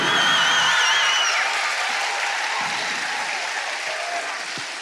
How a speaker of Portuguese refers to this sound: Aplaude mais alto aí esse povo, gente, por favor.